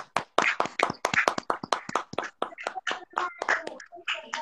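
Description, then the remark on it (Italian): A burst of brisk, uneven hand clapping from a few people, sharp claps tumbling over each other for several seconds, with some voices mingling in as it goes on. “perché non facciamo gli applausi fatti a mano come quelli di una volta?”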